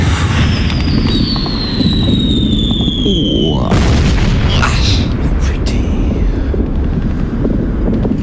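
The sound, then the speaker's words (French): A high, falling whistle streaks in over a constant low rumble for about three seconds, then a nearby artillery shell bursts with a heavy, broad blast that rolls off into dense background noise. “Ah, pas passé loin celle-là.”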